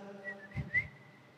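A person whistles a short, bright melody for about a second, with a couple of rising notes. The whistling is close and moderately loud, with soft breathy bumps underneath and no talking.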